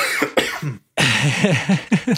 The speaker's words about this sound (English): As we both cough and blow our noses.